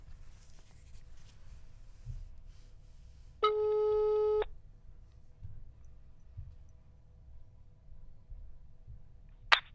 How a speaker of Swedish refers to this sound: Ja, vi tar och ringer upp honom.